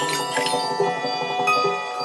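A gong rings with rich, shimmering metallic overtones that hang in the air, a fresh strike adding to the sustained wash midway through. No voices are heard.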